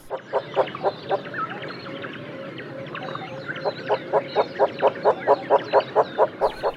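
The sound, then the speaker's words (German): Loud, nasal honking calls of a hornbill, a grey-white bird with some white in the wing and an enormous horn bill marked with yellow, repeat in a fast, steady rhythm, pausing briefly midway before a long, evenly spaced run. Fainter twittering from other birds sits behind them. “Und dann haben die so ein bisschen weiß im Flügel und dann eben diesen enormen Hornschnabel.”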